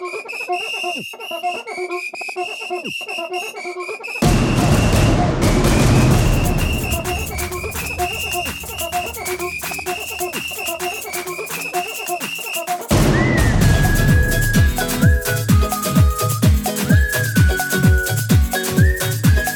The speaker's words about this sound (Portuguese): para começar o episódio agora com o nosso podcast tendo uma música nova de vinheta.